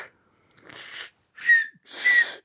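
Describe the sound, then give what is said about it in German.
Three breathy blasts of air as someone tries to whistle with fingers in the mouth; the last two carry a brief, thin whistle tone inside the rushing hiss. Fairly loud, with no talking. “Und dann pfeifst du oben drüber über die Finger oder wie machst du das?”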